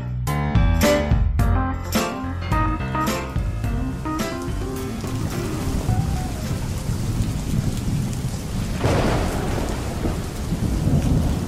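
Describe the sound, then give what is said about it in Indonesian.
A thunderstorm with loud rumbling thunder and steady heavy rain falling. A sharp crack of thunder stands out early, and the rain continues without a break throughout. “Aduh ya ampun, petirnya kenceng banget. Ya Allah. Semoga hujan ini membawa kebaikan.”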